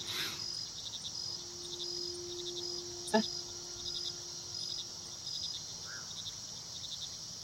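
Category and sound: ambience, nighttime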